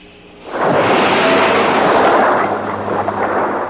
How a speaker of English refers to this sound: We needed something that everybody could say, that's a shark. We took a large uh, Coke bottle and we shook it up real good, threw it out on the cement and it goes shh.